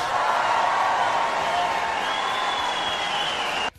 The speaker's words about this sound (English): And, and the crowd roars.